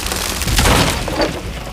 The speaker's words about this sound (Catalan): Un dia, des d'un forat fet al sostre de la seva habitació, algú va tirar una pedra molt grossa sobre el bressol per intentar esclafar-lo.